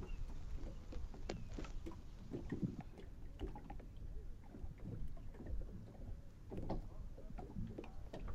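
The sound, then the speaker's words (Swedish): Water laps and clucks gently against the hull of a boat at Skälderviken in Skåne, Sweden, with irregular soft splashes over a steady low outdoor rumble and faint wind; no one speaks. “Det är en vatten som kluckar mot en båt hos mig.”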